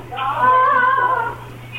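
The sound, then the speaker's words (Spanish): A parakeet gives one drawn-out, wavering squawk that sounds like a cat's meow, fairly loud, with a low steady hum underneath and no talking. “Soy como un gato, ¿no? Parece perico. Era un perico.”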